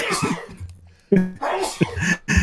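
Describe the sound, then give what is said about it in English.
A sharp, breathy sneeze bursts out, followed by another abrupt noisy exhale, with voices talking around it. “Bless you.”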